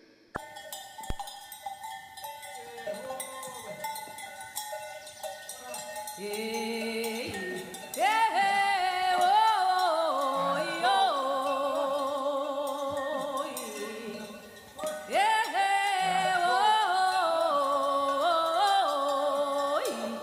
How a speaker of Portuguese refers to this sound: a canção …, a canção de …, que foi feita especialmente para esta cantora